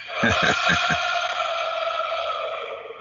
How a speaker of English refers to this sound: I mean, but before um, it started, man, the the crowd was hyped. They were singing. Um, see if you guys yeah. can hear this.